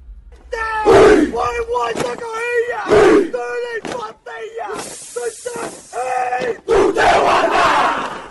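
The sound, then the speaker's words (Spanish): A Maori haka, a ceremonial battle cry and dance of the Maori people of New Zealand: a group of voices shouting in loud, rhythmic unison, with forceful sustained cries, sharp pauses between phrases, and a breathy hissing passage midway. “Se llama Haka y es un grito de batalla.”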